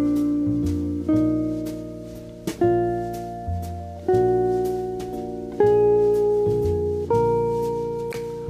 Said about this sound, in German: diese Tonleiter B-Dur mit kleiner 6 und kleiner 7. Und zwar nur über den Akkord B-Dur. Und dann rückwärts noch ein bisschen ein Pattern, eine Übung oder so.